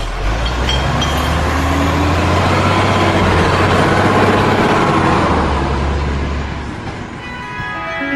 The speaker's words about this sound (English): Hang on, though. I hear the sound of the water delivery man's truck approaching.